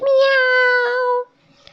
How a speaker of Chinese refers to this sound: 除了一只睡在窗台上有白色脚掌的灰色小猫。喵！小猫说完，伸个懒腰起床。